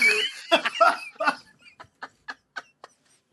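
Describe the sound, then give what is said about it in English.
A person imitates an eagle's squawk: a few loud, harsh, strained cries, then a run of short, evenly spaced squawks that trail off quieter. “Um, uh, the, making making eagle noises was not one of them.”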